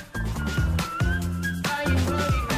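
whistled melody

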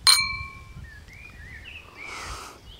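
wine glasses clinking

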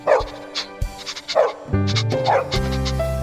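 dog barking

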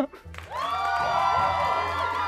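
crowd applause and cheering

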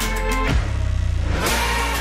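car engine revving

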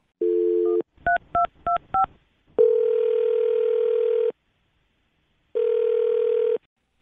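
telephone dialing and ringing

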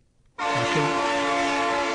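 train horn sound effect

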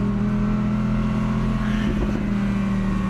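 sports car engine revving

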